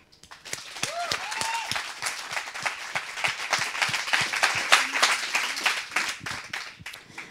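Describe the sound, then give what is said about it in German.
A crowd breaks into steady applause, dense overlapping claps sustained for several seconds at fairly even loudness, with a few brief whoops or cheers rising above it early on. “Und da ist es auf jeden Fall ein Applaus wert und unseren Respekt habt ihr sowieso.”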